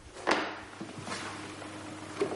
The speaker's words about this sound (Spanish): Abre el cajón y saca los dibujos de Mario.